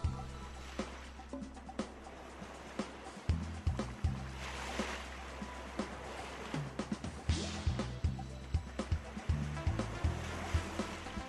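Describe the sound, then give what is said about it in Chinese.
Ocean waves slap against a boat at sea in rough, dangerous conditions under dark clouded skies, irregular, splashy thumps over a steady rush of water, with a low sustained tonal drone underneath and no voices. “海浪此起彼落地拍打着船只，天空乌云蔽日，海况十分险峻，”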